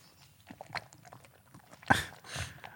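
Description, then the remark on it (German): Wet mouth sounds of someone drinking the water out of a hot-water bottle: small sips and clicks, then a louder gulping slosh near the end, with no talking. “ich habe deine Wärmflasche leer getrunken. Entschuldigung, ich habe dein Wärmflaschenwasser getrunken.”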